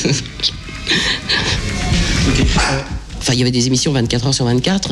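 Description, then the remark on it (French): A dog named Avrel, belonging to the radio host Super Nana, barks in short bursts in the background while people keep talking over it, the yaps moderately loud. “Est-ce que c'est le chien de Super Nana qu'on entend ah Oui, il m'accompagne partout, c'est Avrel.”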